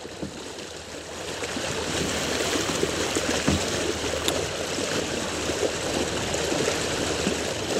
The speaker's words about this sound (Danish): Så øh, nu er vi i hvert fald på vej afsted. Hiver ankeret det sidste stykke op. Det ligger nede i vandet lige nu og, og, og bliver skyllet.